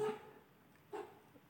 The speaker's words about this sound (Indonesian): kalau kalian dengar suara agak-agak berisik itu adalah tiga kucingku yang ada di kamar ini